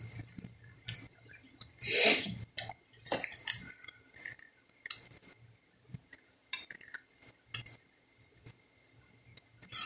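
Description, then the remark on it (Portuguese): Someone drinks water, with small sips and swallows between light glassy clinks and taps, scattered irregularly, one louder clatter near the start; no one speaks. “Tá bebendo água e cantando.”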